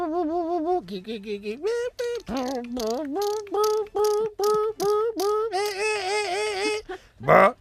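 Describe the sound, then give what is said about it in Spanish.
A voice mimics a coin-operated pharmacy machine whirring and ratcheting after a euro and a sample are inserted, with warbling, buzzy tones broken into a quick run of uneven bursts, fairly loud, ending on a sharper final burst. “entonces pues fue a la máquina de la, de la farmacia y inserta aquí su muestra es el euro lo echó y empezó aquello otra vez a hacer los ruidos.”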